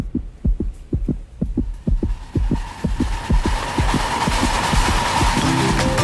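A fast, steady fetal heartbeat on an ultrasound monitor, rhythmic whooshing thumps over a low hum, growing more muffled and washed-out toward the end; no one speaks.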